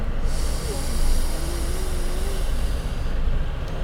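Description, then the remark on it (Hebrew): A long, deep inhale through the nose during a guided breathing exercise with eyes closed, one of three big breaths taken in through the nose and out through the mouth: a steady breathy hiss lasting about three seconds with a slight swell near the start, then trailing off. No one speaks. “אתם יכולים לעשות את זה ביחד איתי, זה נשמע משהו כזה. נשימה פנימה.”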